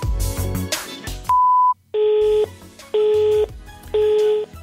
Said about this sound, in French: la personne que vous essayez de joindre n'est pas disponible, vous pourrez envoyer un message après le bip sonore.